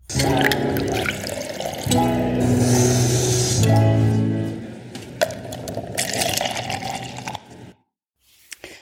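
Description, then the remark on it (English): Coffee pours steadily into a cup, a continuous splashing, gurgling stream that runs for several seconds before stopping abruptly, followed by near silence and a faint final clink. “So stick around, pour yourself a cup of coffee, put your feet up, and take a little coffee break with me.”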